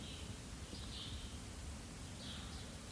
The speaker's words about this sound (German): Vielleicht fühlst du oder hörst du ein Vogel zwitschern, was auch durch das Mikrofon hier zu hören ist.